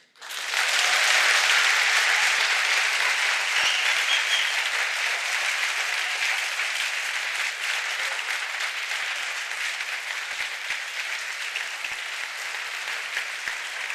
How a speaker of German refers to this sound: Und wir würden gerne für diese Aufzeichnung des Politikteils jetzt einmal den Hörsaal donnernd hören.